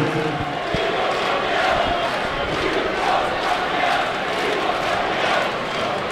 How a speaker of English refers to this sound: don't know if you can hear this, but the Arsenal fans are singing, We want Kroenke out, we want Kroenke out, we want Kroenke out.